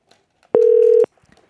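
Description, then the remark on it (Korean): A single loud, steady telephone ringback tone sounds for about half a second as a radio show host calls a listener on air, a clean electronic hum heard alone with only faint background noise around it. “7540님 전화 한번 해볼게요.”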